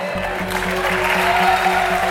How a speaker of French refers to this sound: C'est la première fois qu'Elisabeth Borne dégaine le 49-3 les députés de l'opposition quittent l'hémicycle, tandis que ceux de la majorité se lèvent pour applaudir.